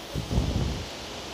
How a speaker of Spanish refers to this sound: pero miren, la parte afuera está, se está dejando caer el cielo. Está lloviendo, entonces puedo escuchar la lluvia, disfrutar el, sonido de la lluvia y, y, mientras tanto disfrutar este, este verdor en el que estoy.